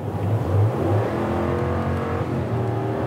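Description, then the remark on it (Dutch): The 5.7-litre, 400 hp Hemi V8 engine of a Ram 1500 pickup revs up loud, its deep burbling rumble swelling and easing over a few seconds, with no voices over it. “Ah, V8. 5,7 liter groot, een Hemi V8, dus dat is zeg maar de, de, de real shit, wou ik bijna zeggen.”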